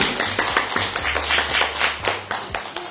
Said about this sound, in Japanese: はい、拍手